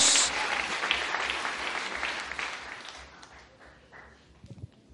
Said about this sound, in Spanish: Fuerte aplauso al Rey de Gloria en esta hora. Gloria a Dios.